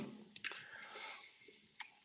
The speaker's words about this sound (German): Das sind immer die Stellen im Podcast, die so ganz ruhig mhm. sind, wo man dann diese ganzen Geräusche hört. Oh, schlucken noch.